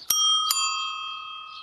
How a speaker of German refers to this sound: Dafür habe ich eine extra große Klingel. Die überhört keiner so schnell.